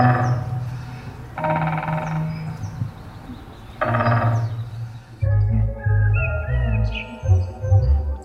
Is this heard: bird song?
yes